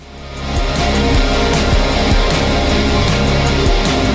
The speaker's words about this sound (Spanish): En España el programa se llama como ya hemos indicado, la fuente de la vida. Y la sintonía suena así.